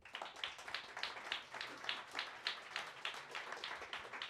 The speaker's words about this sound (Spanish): Bien, aplausos.